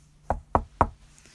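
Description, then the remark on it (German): Three quick knocks on wood in an even, steady rhythm, fairly crisp, with a hollow woody tone and no voices, followed by a short quiet pause. “Da klopfe ich jetzt dreimal auf Holz.”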